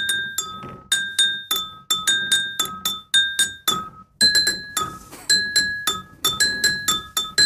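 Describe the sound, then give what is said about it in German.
A tune tapped out on prosecco glasses filled to different levels, bright ringing clinks at varied pitches following a steady rhythm, each note decaying quickly, clear with no talking. “Prosecco-Gläser mit unterschiedlichen Füllstellen?”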